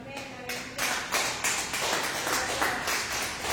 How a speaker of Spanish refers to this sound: Den un aplauso al Rey.